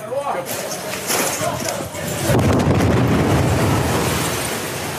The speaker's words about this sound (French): Deuxième explosion à l'extérieur.